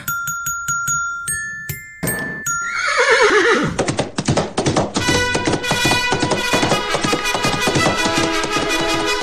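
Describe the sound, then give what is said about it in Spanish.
Light tinkling chimes give way to one loud, descending horse whinny, then a steady rapid clip-clop of hooves runs beneath bright music until the end. “Aunque los caballos no son considerados mascota como tal, sí han tenido una relación muy estrecha con los humanos”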